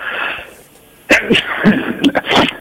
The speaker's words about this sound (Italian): se comincio ne faccio un record di, di 13 starnuti.